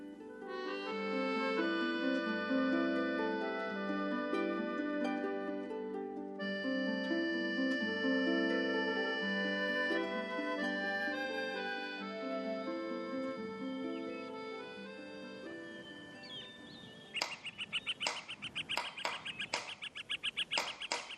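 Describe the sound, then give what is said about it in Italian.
A run of sharp, rapid, fairly loud hammer knocks on wood starts near the end, after a long stretch of sustained, mellow tonal music; someone is hammering while building cages for newborn pheasants. “Mi chiedevo cosa fosse questo rumore, se un martello o un picchio. Sto costruendo gabbie per fagiani appena nati, milady.”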